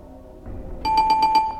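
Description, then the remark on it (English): A bell rings with a bright, sustained metallic tone, struck in a quick series of about four pulses over a low background rumble, fairly loud. “I think that was a bell.”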